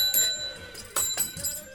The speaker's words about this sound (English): My bell's dropped off.